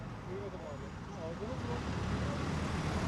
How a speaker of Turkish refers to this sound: Tam kapanma olan bir ülkede böyle bir trafik yoğunluğu olabilir mi? Bu yalnızca bugüne özgü değil.